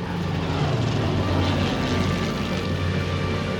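Propeller engines of a plane in the 91st Formation drone steadily and loudly as it crosses over Denmark towards the Baltic Sea, a dense continuous roar with a low rumbling hum and no voices.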